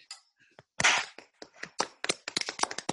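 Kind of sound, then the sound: crowd, small group clapping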